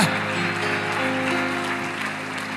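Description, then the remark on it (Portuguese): A church audience stands and applauds Jesus during a sermon, dense clapping filling the space with a sustained, even wash of sound and a faint musical hum underneath. “Aplauda Jesus e se coloque de pé.”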